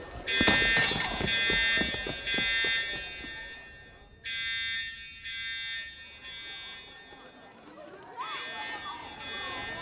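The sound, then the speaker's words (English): A fire alarm rings loudly with a shrill, steady electronic tone in long bursts separated by brief pauses, over hurried footsteps and the murmur of a crowd, during a fire drill as people move to the exits. “I didn't know there was supposed to be a fire drill this morning.”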